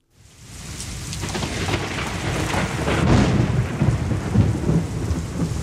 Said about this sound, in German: Ja, so ein richtiges Sommergewitter, das hat auch was Tolles zumindest wenn man es aus dem Trockenen beobachten kann.